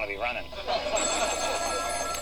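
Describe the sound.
A telephone rings loudly and steadily for a couple of seconds with an incoming call, a bright, warbling electronic tone. Faint voices murmur underneath.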